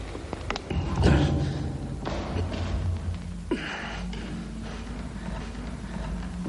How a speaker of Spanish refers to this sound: Mientras en la biblioteca Guillermo sigue empeñado en abrir la portezuela metálica.